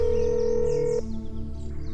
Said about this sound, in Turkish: Merak etmeyin. Buna izin vermeyiz telefonumu çıkarıp yardımcım Ali'nin numarasını çeviriyorum.